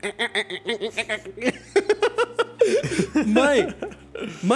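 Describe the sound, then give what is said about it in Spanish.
A person imitates the chattering a cat makes when it sees a bird and wants to hunt, making quick, stuttering clicks and squeaky vocal bursts in a rapid run that grows into warbling, strained sounds. It is fairly loud. “Nunca había visto un pajarito o una ardilla, pero el día que vio un pájaro y tuvo la oportunidad, empezó a hacer este ruido tan, tan, tan macabro que hacen los gatos cuando quieren cazar.”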